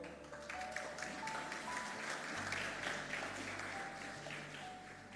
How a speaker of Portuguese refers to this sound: E pode sentar aplaudindo ao Senhor.